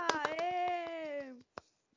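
Quick, steady hand claps ring out in a brisk rhythm while a voice holds a long, sustained whooping note over them; after a short pause, a couple of isolated claps follow.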